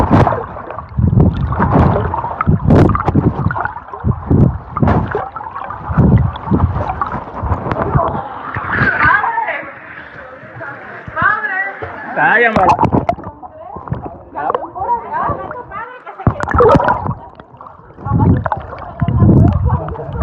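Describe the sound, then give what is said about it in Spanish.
Repeated splashes and churning water from people swimming through an underground cave river at Scaret park, recorded with an Apple Watch, with indistinct voices mixed in. The splashing comes in irregular, loud bursts. “Que disfruten el chapuzón. Grabando en la cueva, el río de la cueva de Scaret con el Apple Watch.”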